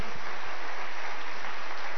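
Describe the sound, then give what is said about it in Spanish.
An audience at a talk applauds some attendees and those who invited them: a dense wash of many hands clapping at once, fairly loud and continuous for a couple of seconds with no voices over it. “siéntense por favor, un aplauso para ellos y para los que los invitaron.”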